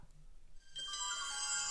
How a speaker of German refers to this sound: Ich glaube, die Leute sind einfach erstaunt, dass du einen, ähm, äh, einen personalisierten Klingelton auf deinem iPhone hast,